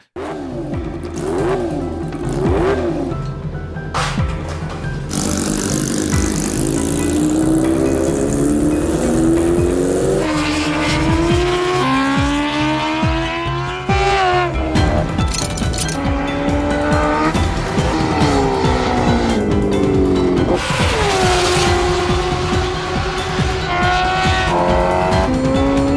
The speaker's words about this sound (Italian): volevo invece, prima di parlare veramente di questa moto, volevo farla ascoltare ai nostri ascoltatori se, se siete d'accordo.